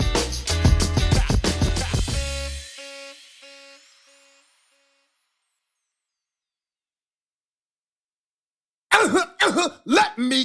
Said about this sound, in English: clear my throat